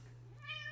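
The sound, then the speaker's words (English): A cat lets out a single short, high meow, fairly faint, over a steady low background hum with no one talking. “That is that is my cat wanting to join the podcast.”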